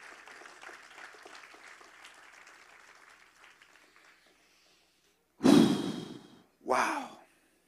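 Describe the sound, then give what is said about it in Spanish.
A church audience's applause for God crackles steadily for several seconds and gradually thins out, followed by two loud, breathy bursts like heavy exhalations into a microphone. “Yo creo que Dios se merece un fuerte aplauso.”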